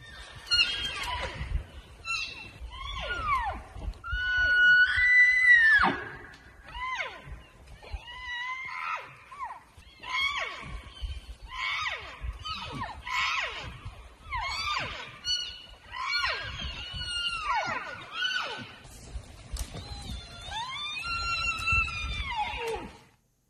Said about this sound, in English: I say it's elk. Very good.